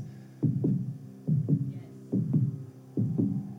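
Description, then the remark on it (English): A steady heartbeat thumps at the start of a rock song, four deep lub-dub pairs in a slow, even rhythm, each a low, booming double beat with no voices. “I love the heartbeat at the beginning and it slow builds.”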